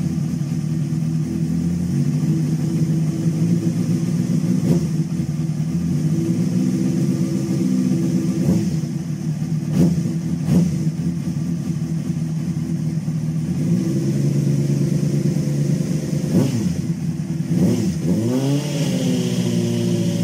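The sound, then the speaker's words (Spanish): A motorcycle engine runs loud for about twenty seconds, idling with a steady throbbing rumble, then revs up sharply near the end with a rising whine before settling again. “me gusta la F, pero es que la RR, yo qué sé, pero no sé.”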